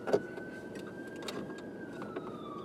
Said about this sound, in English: Can you hear this ambulance? I, I tried for a long time to find a quiet spot.